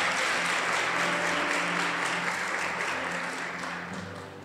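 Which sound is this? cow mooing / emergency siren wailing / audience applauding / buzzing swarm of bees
audience applauding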